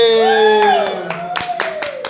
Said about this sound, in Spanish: aplausos, aplausos por favor.